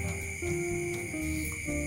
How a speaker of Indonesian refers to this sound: Jadi gini, ya ditemani oleh suara-suara jangkrik, jangkrik.